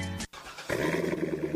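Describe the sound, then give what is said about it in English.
A Corvette sports car engine roars, loud and throaty, after a brief burst and a split-second pause, then holds a steady, rumbling rev with no voices. “That's the sound of America's only sports car.”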